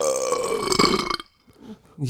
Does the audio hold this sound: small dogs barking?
no